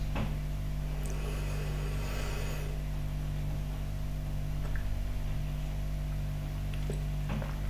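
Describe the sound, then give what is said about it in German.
A refrigerator hums steadily and continuously, a low, even drone with a faint electrical buzz, with only a few tiny clicks and no voices. “dass der Kühlschrank brummt, hört man wirklich gar nichts.”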